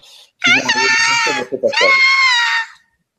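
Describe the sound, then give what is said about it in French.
Two long, shrill screams in a row, loud, with a wavering, bleating quality, separated by a short break; a person imitating the terrified screams of a blonde woman chased by a horror-film serial killer. “Et vous n'hésitez pas, allez poursuivre la blonde, allez, vous, allez faire peur et surtout, courez, allez affronter et surtout délectez-vous des cris qui vont se euh,”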